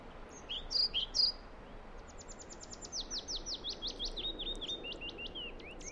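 Old-growth forest ambience: a soft, steady hiss of open air with birdsong, two bright chirps first, then a long, rapid series of repeating descending whistled notes.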